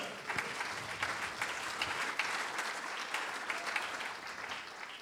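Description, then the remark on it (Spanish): A church audience breaks into steady, sustained applause offered as praise to the Lord, dense overlapping hand claps holding at an even level throughout with no voices standing out. “Dele su mejor ofrenda de palmas al Señor.”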